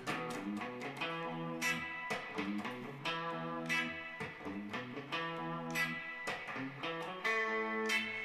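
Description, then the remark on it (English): Electric guitar played through its bridge pickup, with a bright, quacky, slightly harsh tone, playing a lively run of chords and single notes, steady in volume, with no voices. “It's, I mean, I would say it's a little bit quacky, but it sounds pretty good.”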